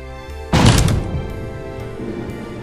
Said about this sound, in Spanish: Una vez tirada la puerta, el aire helado les golpeó la cara.